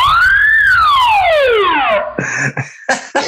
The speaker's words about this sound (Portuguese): o editor pode botar a vinheta da sirene do cubismo